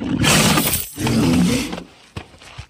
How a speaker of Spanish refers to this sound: Ustedes, como por ejemplo, para cuando quieran saber dónde está el enemigo, tienen que escuchar los gruñidos para cuando tienen que saber cuándo atacar. Entonces, cuando escuchen que gruñe, miren, vamos a, atacar.